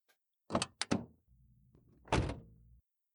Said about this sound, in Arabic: أسمع صوت باب سيارة بابا يغلق بشدة.